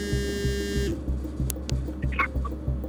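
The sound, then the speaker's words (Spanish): A buzzy electronic telephone ring sounds briefly, then cuts off after under a second, leaving a steady low rhythmic pulsing in the background and a few faint high chirps. “En ese momento, suena su teléfono.”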